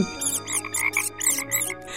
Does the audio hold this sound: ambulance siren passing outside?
no